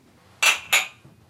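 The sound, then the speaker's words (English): Two bright glass clinks in quick succession as glasses are touched together in a toast to backers, each ringing briefly with a high, shimmering tone before fading. “we not only say thank you, but we, we give a hearty cheers and a toast to each backer.”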